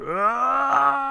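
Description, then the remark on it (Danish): A man's single drawn-out groan, a sound effect from the game Dark Forces that plays when the character falls from a height, held at a steady low pitch for about a second, loud, with no other sounds around it. “Det er ligesom, kan du huske øh, i Dark Forces, når man faldt ned for noget højt, der var også den der lyd af en mand, der siger...”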